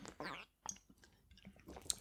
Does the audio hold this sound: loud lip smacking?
yes